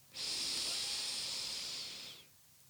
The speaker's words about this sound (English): And when you're ready to release, Imagine yourself breathing it all in, a real deep breath from your belly.